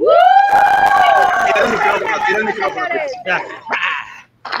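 A lively audience cheers and whoops loudly, with a high sustained shout at the start and bursts of clapping underneath, then the crowd noise breaks into scattered shouts before fading.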